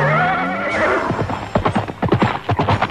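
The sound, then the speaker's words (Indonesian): A ridden horse gives a loud, wavering whinny, then its hooves clip-clop in a quick, steady rhythm that grows prominent, with no voices present. “Hei para penunggang kuda, kenapa kau hentikan langkahku?”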